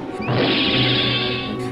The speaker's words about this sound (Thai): แต่คราวนี้กับแตกต่างออกไป เนื้อชิ้นโตแข็งและเหนียวมาก จนมันกระชากไม่หลุด กลับกัน หมาป่าก็วิ่งอย่างเต็มแรงกลับทะไลไปชนกับกำแพงร้านอย่างแรง